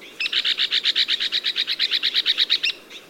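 An Arizona woodpecker's call: a rapid, even string of about eighteen sharp, high notes in a steady rattling rhythm lasting a couple of seconds, clear, with no talking.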